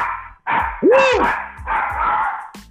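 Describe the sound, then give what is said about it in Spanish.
A small dog barks in a quick series of four or five loud yaps, one rising into a higher yelp, with barely any pause between them. “con sonido de perrito incluido”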